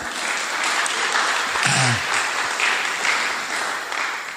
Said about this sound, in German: Habt, habt ihr schon großen Applaus gegeben?